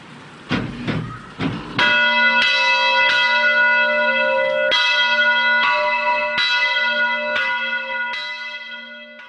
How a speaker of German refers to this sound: Glockenweih ist dann wirklich der Höhepunkt, wie in Balwil im Jahr 2008. Die schön verzierte Kirchenglocke ist zuerst in der Pfarrkirche vom Pfarrer mit Weihwasser gesegnet worden. So tun jetzt wir zuerst die Glocke mit Weihwasser segnen.